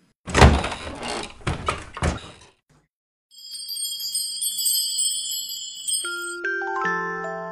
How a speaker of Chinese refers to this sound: 如果你愿意和我一起，那就请走过来。你只需要敲敲门。